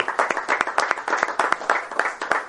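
An audience breaks into applause for a teacher who is present, a dense run of overlapping handclaps with sharp, bright transients that keeps a steady, lively rhythm for a couple of seconds, fairly loud and with no voices over it.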